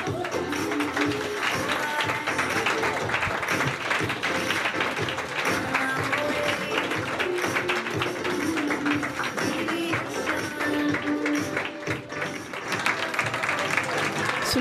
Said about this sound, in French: Voici comment se conclut le défilé, sous les applaudissements euh, pour euh, la responsable euh, qui est chargée de ce défilé.